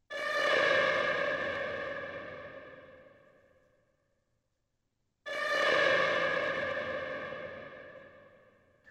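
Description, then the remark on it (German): Two long, siren-like whale sounds from a music track, processed with added sustain and a heavy tremolo, each starting strongly and fading slowly over about four seconds with a wavering tremolo and an echoey, reverberant tail. No voices. “Wie man vielleicht hört, da ist jede Menge mehr Sustain da, also der Sound wird deutlich länger. Da ist ein, der eine andere wird sich schon denken, ein heftiger Tremulator drin, damit der Sound so ein bisschen für Chaos sorgt”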